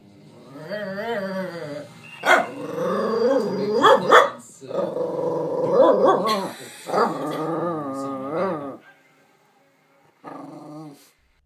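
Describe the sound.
A dog, Majken, makes a long run of warbling, talk-like vocal sounds, wavering growls and whiny yodels rising and falling in pitch, in several bursts with short pauses, ending in a brief final grumble.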